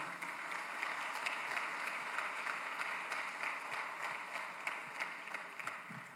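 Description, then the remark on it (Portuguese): A church audience applauds the Lord in a dense, sustained wash of many hands clapping, holding an even loudness for several seconds with no voices breaking through. “Pode dar um aplauso bem forte ao Senhor.”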